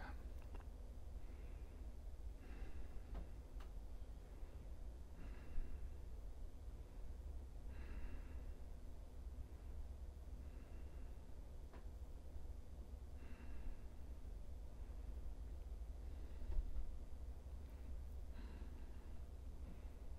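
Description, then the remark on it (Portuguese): Soft, steady, deep breaths drawn in and out slowly through the nostrils in a slow, even rhythm while preparing for complete silence, each airy whoosh repeating every few seconds over a quiet low hum, with no talking. “Inspirando e expirando pelas narinas lentamente.”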